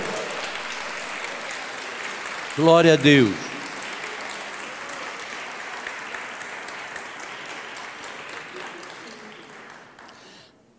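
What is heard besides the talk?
audience applauding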